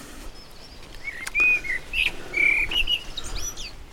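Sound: birds chirping at dawn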